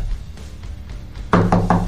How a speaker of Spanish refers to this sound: Desde Valls nos llaman a la puerta, trucan a la puerta